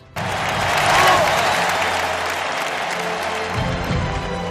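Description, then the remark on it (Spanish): Steady applause from a crowd, a dense rush of many hands clapping that swells in the first second and then holds at an even, fairly loud level until the end, with no voices on top. “Aplausos también, porque ya sabemos que las plazas de toros, como todo, están cerradas.”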